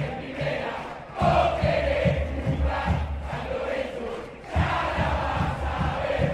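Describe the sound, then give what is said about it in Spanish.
A big stadium crowd of Argentine football fans sings stadium chants for their team in a loud, rhythmic chant, the massed voices swelling in bursts with a steady low pulse of drums or stamping underneath. “hay algo que me parece maravilloso de las hinchadas argentinas es la creatividad y lo hermoso que suena escuchar los cantitos de cancha.”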